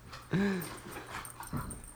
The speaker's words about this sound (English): I'm sorry, the dog just ran into the room. He's loud. Hi, Charlie.